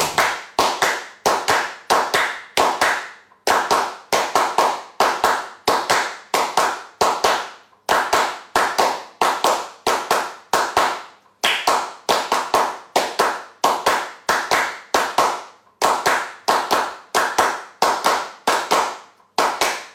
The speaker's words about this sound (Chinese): 只是拍手， 嗯 就是那么拍手，但是我也能感觉到特别的一种情绪在里面。